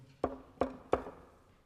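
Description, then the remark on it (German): Three firm knocks on the wooden front door of a family's home, slightly quickening in pace, each with a short hollow resonance, with no voices present. “Wohl ein Dutzend Mal ging er vor deren Haustüre auf und ab, ehe er den Mut aufbrachte, an die Türe zu klopfen.”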